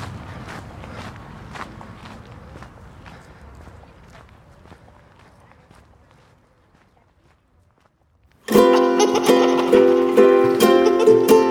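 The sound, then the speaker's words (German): Steady footsteps walk along at an even pace, heading home after a full lap around a stadium, gradually fading until everything goes quiet, then loud music abruptly starts. “Eine ganze Runde ums Stadion und genug Sport für heute. Ab nach Hause.”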